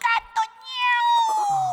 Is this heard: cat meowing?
yes